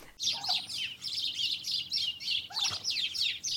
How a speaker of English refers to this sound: Put some bird noise on.